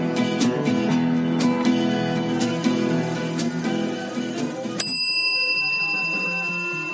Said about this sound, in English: Yeah, yeah. We had the bell.